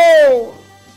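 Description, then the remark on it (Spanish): A single loud cat meow with a falling pitch, lasting about half a second before trailing off into quiet background hum. “¡Agarren ese gato!”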